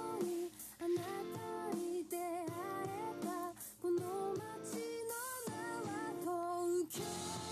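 A rock song plays steadily and loudly throughout from a Spotify playlist on shuffle, with dense, full-band guitars and drums under a sung melodic vocal line, with brief dips between phrases.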